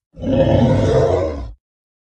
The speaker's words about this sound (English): Somehow sensing my nervousness, Lyak turned around and growled something incomprehensible but reassuring sounding.